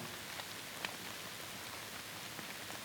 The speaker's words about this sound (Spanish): hasta que la lluvia comienza a hacerse incontrolable.